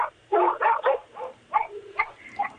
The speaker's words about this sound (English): Sounds like you have plenty of doggy commentators there.